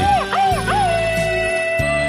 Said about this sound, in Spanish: Y ese grito ametralladora se va hasta Lake Elsinor